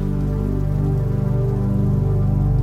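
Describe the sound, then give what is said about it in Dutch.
Steady rain falls continuously on a stormy night, a constant wash of drops over a deep, droning low hum, with no voices and no pauses. “Je verwondert je om de perfectie van de regendruppel in het idee dat één druppel als onbelangrijk zou kunnen worden gezien in vergelijking met een stormachtige nacht als deze”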